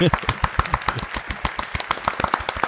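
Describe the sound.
A small group applauds a quiz winner, with brisk, overlapping claps that crackle steadily at a fairly loud, even level for the full few seconds. A few voices can be heard under the clapping.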